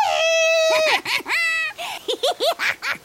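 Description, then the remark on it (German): A person imitates a moose call: two drawn-out, nasal, wavering wails followed by a quick string of short rising-and-falling yelps that trail off like giggling. “welches Geräusch macht ein Elch?”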